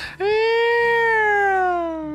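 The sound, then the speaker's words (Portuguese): A single voice imitates a passing ambulance's Doppler effect: one sustained, fairly loud vocal wail that slides slowly downward in pitch for about two seconds, with no other talking. “o efeito Doppler é aquele quando a ambulância passa e faz.”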